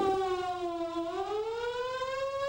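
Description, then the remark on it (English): A loud, wailing warning siren with a steady tone that dips in pitch and then slowly rises again, sounding continuously and alone without any voices. “What if a warning siren sounds?”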